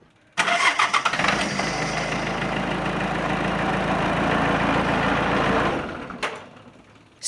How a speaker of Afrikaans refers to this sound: 'n uh, 1.5 liter vierslinder turbo diesel enjinkie wat gemaak word deur Mitsubishi